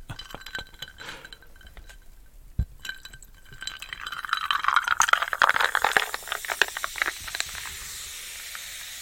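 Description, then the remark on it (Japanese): Wilkinson tonic water is poured into a glass to mix with 47% gin, with small clinks at first, then swells into a dense, crackling fizz of bubbles that hisses steadily as the carbonation settles. No one speaks. “えー、ウィルキンソンのトニックを使って割っていこうと思いますね。”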